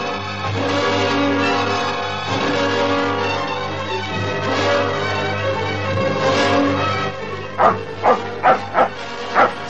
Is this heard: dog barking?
yes